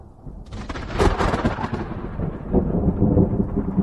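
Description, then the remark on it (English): A long, loud rumble of thunder from a thunderstorm rolls over a field in a valley, echoing and crackling across the sky, swelling and fading in uneven waves before surging again, with no voices present. “A thunderstorm rolled over me, and uh, I just, for some reason, listened to it completely for the first time.”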